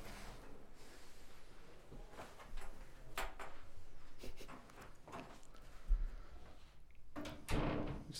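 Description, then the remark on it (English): Quiet shuffling and a few soft footsteps as someone exits the room, followed by the clunk of the door being closed near the end. No one speaks. “I'm going to exit the room, close the door, and you can start whenever.”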